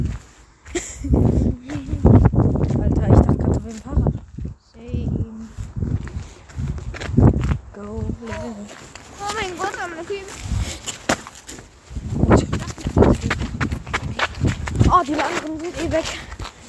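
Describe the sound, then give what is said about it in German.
Quick, uneven running footsteps thud steadily for most of the stretch, briefly pausing midway, while voices talk and call out over the pounding strides. “Ja, moin, warum renne ich?”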